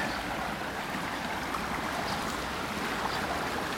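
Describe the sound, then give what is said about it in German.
Continuous rushing water, like a fast stream, fills the scene with a dense, hissing roar that grows louder, with no voices. “Ich gehe jetzt noch ein bisschen langsamer, weil jetzt nimmt das Geräusch wirklich des Wassers wunderbar zu.”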